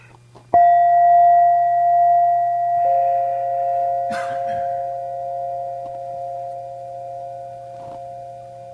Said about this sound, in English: And the sounds you hear, these words, the soft sounds in the background. the silence. And bells.